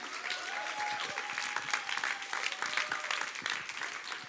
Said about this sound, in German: Und ähm, ich finde es großartig, meine Eltern heute Morgen hier begrüßen zu dürfen. Und können wir einen fetten Applaus für 300 Kilometer Autofahrt geben?